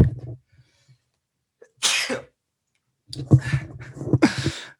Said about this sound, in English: nothing like a little sneeze attack in the middle of a podcast slash Facebook live